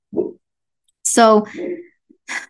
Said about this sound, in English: not sure if you can hear Bane barking in the back, but he obviously agrees with me.